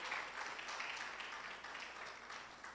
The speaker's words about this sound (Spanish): Aplausos al Señor, amado hermano. Gloria a Dios.